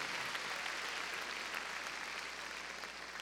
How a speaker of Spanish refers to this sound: Bueno, démosle palmas fuertes al Señor, gloria a Dios.